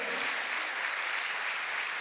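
audience applauding

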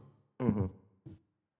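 sneeze

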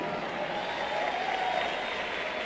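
audience applause

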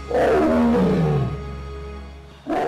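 tiger roaring

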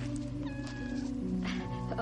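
kitten meowing

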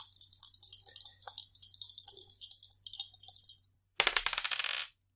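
two dice being rolled

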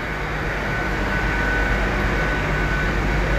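train at station platform

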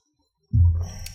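water being poured

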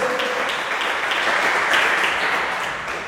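church audience clapping

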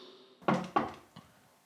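knocking on a door

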